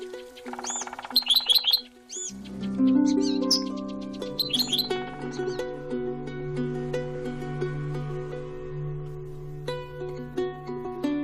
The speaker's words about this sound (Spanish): Kenzaburo consiguió un disco en el que se oían diversos cantos de aves